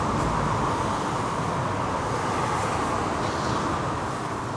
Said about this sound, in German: Und äh, hier wird tatsächlich auch viel gefahren, ne? Also hier ist viel Verkehr.